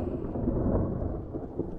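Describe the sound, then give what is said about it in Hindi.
A deep, sustained rumble of thunder rolls through a steady wash of heavy rain, loud and continuous throughout with no voices present. “फिर मानो आसमान ही फट गया इतनी जोर से बारिश होने लगी”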